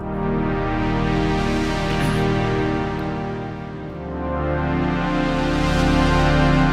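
A rich, sustained synthesizer chord rings out loud and steady, its stacked harmonics droning with a slight wavering shimmer, dipping briefly before swelling back up, with no voices over it.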